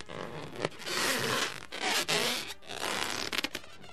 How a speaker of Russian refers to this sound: Если вы услышали скрип, то с таким скрипом протягиваются шутки, ребята.